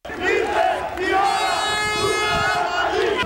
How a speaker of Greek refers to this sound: Ο δρόμος ε, μπροστά από την πλατεία συντάγματος έχει κλείσει. Οι ψηφοφόροι πανηγυρίζουν, ακούγεται το ύμνος της Νέας Δημοκρατίας.